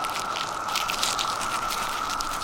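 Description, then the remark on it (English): Three dry cicada exoskeletons being crunched by a hand in a garden glove, a steady, brittle crackling and crinkling with slightly louder bursts throughout, moderately loud with no talking. “I'll just crunch these exoskeletons for you. I have three of them here, and I have my garden gloves on.”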